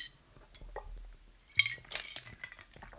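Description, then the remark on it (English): A glass clinks sharply a couple of times, bright and ringing, followed by softer knocks and faint handling sounds as someone sips water; no one speaks. “I'm going to take a sip of water right now.”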